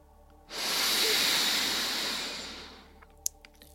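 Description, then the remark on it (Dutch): A long, steady breath drawn in through the nose during a breathing exercise, a breathy hiss that swells quickly and fades after about two and a half seconds, followed by a couple of small clicks. “Dus inademen door de neus”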